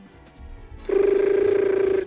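A telephone rings once in a single loud, buzzy burst with a rapid trill, lasting about a second after a quiet background, with no one talking.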